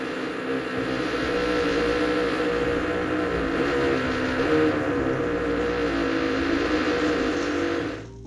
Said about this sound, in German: Tut mir leid, tut mir leid, dass es so laut war. Ähm, wir haben gerade die Handwerker da und die haben gerade gebohrt.